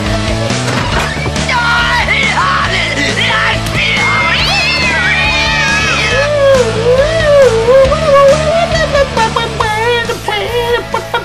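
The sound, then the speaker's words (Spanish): Several of the dozens of cats kept by one woman meow loudly and repeatedly, their rising and falling cries overlapping one another over a dense, steady background bed, with no one speaking. “Las personas aseguran que está loca porque tiene decenas de gatos.”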